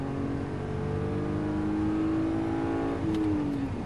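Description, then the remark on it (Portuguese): A car engine revs steadily as it accelerates, its rising tone climbing smoothly over a few seconds, loud, with no voices present. “tá liso esse carro, hein? Tá, tá, tá liso. Que usina, hein? Nossa senhora, cara. Que usina. Olha isso, Acelera aí”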